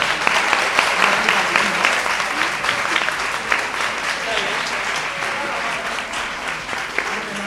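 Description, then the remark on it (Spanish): Sustained applause from an audience, a dense wash of many hands clapping steadily for several seconds with no clear break, with faint voices mixed in beneath it. “Un aplauso, por favor.”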